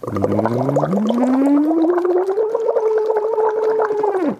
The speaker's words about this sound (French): Deuxième cas de figure, peut-être que lorsque vous allez commencer à monter dans les aigus, ça va se mettre à glouglouter très très fort, donc à déborder. Exemple.